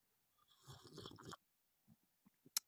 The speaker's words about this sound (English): I'll get that better for everybody who loves my sips of coffee on the podcast.